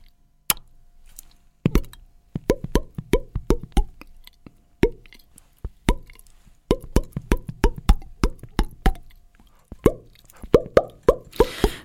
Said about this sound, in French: et pour finir, le poisson rouge monte à la surface de l'eau et ouvre plusieurs fois la bouche avec un petit bruit à peine perceptible.